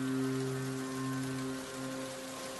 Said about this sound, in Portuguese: Tá é só chovendo nessa cidade.